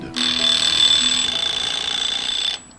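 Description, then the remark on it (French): A loud, continuous electronic alarm-clock ring with a piercing high-pitched tone, the programmed alarm in the cabin of Philippe Poupon's sailing boat Fleury-Michon in the Roaring Forties, South Atlantic, at 2:15 on 27 December 1989, sounding alone about two and a half seconds before cutting off abruptly. “L'alarme programmée du réveil déchire l'habitacle du bateau Fleury-Michon.”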